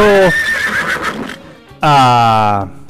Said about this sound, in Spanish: Ahí está, ahí está, relinchando.